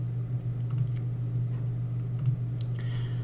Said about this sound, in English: Sorry for the clicking, but my uh, computer decided to go wonky on me.